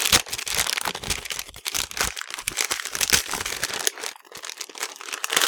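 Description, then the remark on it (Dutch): Continuous crinkling and crackling of packaging as lots of tape and wrapping are pulled off a parcel about the size of a board game expansion, fairly loud, with irregular bursts of rustling and no talking. “Heel veel plakband.”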